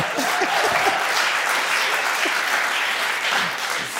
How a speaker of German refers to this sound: Und äh, er hat da geklatscht jetzt.